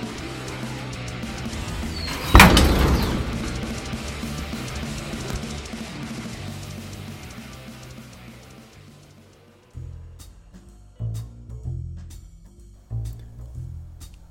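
A single loud door slam as a door is shut on entering, landing early against a murky ambient background that slowly fades, followed by a sparse, rhythmic musical beat near the end.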